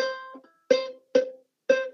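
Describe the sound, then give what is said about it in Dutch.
A poorly set-up ukulele strummed four times in a slow, even rhythm, each strum bright and twangy with a slightly sour, out-of-tune ring that decays quickly. Clear, with no voices. “Wat natuurlijk logisch is, want als jij dan in een winkel zo'n ukulele gaat proberen en hij klinkt zo.”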